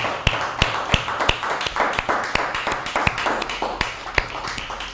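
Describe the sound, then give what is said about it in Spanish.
A church crowd applauds the Almighty steadily, many hands clapping at once, with a few sharp, louder claps standing out in a quick, even rhythm. “¿Por qué no le damos un fuerte aplauso al Todopoderoso?”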